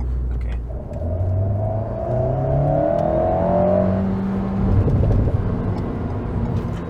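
A sports car with a DSG gearbox revs up loudly, its pitch climbing through the gears, with brief crackling exhaust pops as it comes off the throttle near the end.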